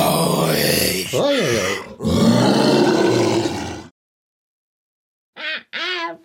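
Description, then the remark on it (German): A person wearing a bear costume growls and roars in a rough, throaty voice, imitating a bear, in loud sustained bursts, followed after a pause by two short, higher-pitched vocal cries. “Oh, ich fühle mich richtig wild in dem Kostüm. So richtig. Bär.”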